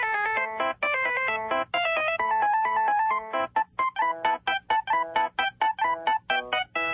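A bright, synthetic phone ringtone plays Mozart's Rondo alla Turca, a fast classical melody with crisp staccato notes in a quick, lively rhythm. It is loud, with no voices over it.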